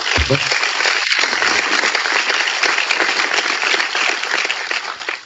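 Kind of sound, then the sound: crowd, applause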